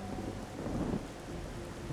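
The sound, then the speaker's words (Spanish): A thunderstorm: a steady wash of heavy rain with a deep rumble of thunder rolling underneath, swelling briefly near the middle before settling back into the downpour. “Es la tormenta, hijo.”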